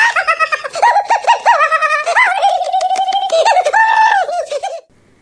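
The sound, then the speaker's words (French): A small creature's high, warbling cooing voice trills and chirps in quick rising and falling phrases, fairly loud, running for about five seconds before cutting off into silence; an imitation of Gizmo from the Gremlins films. “Au niveau des films de Voyagecast, il y avait bien entendu les Gremlins 1 et 2, dont je me suis servi pour euh, faire la voix de Gizmo.”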